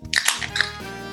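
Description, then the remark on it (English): A beer can cracked open: a few quick, sharp snapping bursts and a brief fizzy crackle, then a low lingering hum. Nobody speaks. “Only uh, three beers opened.”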